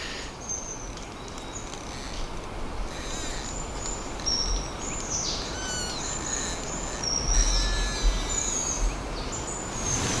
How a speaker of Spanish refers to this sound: El viento flojo predomina el crujir de los pinos.